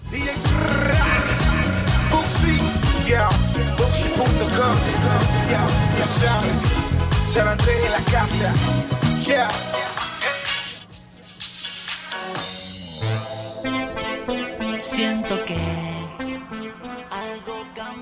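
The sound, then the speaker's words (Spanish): A loud, continuous DJ mix of dense, beat-driven dance music from a new set from Rumor, recorded on Saturday, November 3, that thins into a sparse breakdown midway before the rhythm returns, with a brief voice or vocal line heard over it. “Lo que están escuchando es mi nuevo set de Rumor.”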